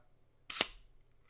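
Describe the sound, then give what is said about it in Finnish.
A single mechanical shutter release of an FT2 panoramic film camera, the predecessor of the Horizont, at 1/100 second: a quick whirring snap lasting a fraction of a second, fairly loud against a quiet background. “No hei, sitten mulla on tämä Horizont-kameran edeltäjä, tämä FT2.”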